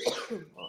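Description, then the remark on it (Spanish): A single quick sneeze, moderately loud, a sharp burst of breath that trails into a brief throaty vocal sound. “Salud.”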